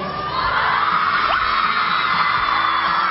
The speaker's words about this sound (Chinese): 尖叫声不要停，好不好？来，给你们五秒钟的尖叫时间。